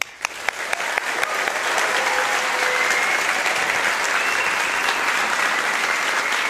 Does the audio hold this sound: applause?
yes